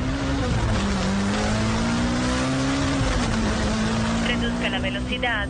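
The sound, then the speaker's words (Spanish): A small car engine revs hard and steadily as the driver accelerates, its drone climbing gradually in pitch, loud throughout, with a brief higher whine near the end. “Si no acelero el quemado voy a ser yo.”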